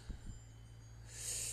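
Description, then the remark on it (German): Faint cowbells on cows clank and jingle in an Alpine pasture in Tirol, a short bright ringing rising near the end over a low outdoor hum, with a couple of soft thuds earlier and no voices. “Du hörst die Kühe im Hintergrund, die Glocken.”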